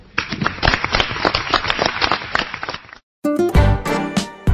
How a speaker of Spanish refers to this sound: Vamos a aplaudirlos.